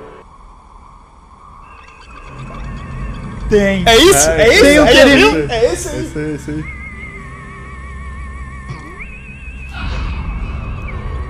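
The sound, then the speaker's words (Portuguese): An eerie theremin melody from a cartoon, with wavering, sliding pitches, swells loudly midway, then settles into long held tones that step between notes, while people talk briefly over it. “E agora precisa descobrir se é coragem ou um covarde tem um então, Teremin.”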